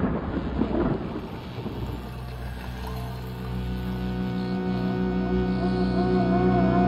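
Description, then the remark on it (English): A loud thunder clap sound effect bursts out and rumbles for a couple of seconds, then gives way to a steady, sustained droning tone that holds to the end. “Clap of thunder.”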